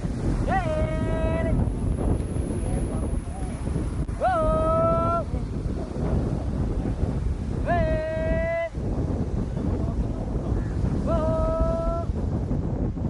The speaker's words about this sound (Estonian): on kalavõrkude väljatõmbamisest kujunenud üks Sri Lanka tuntumaid motiive. pikk rivi traditsioonilistes sarongides mehi, kes on need sirged riidetükid püksteks üles keeranud, koondavad jõud ühisele tõmbele hüüde peale, et võrk lainetest kätte saada.